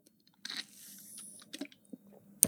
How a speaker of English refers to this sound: sorry, I need a sip of water.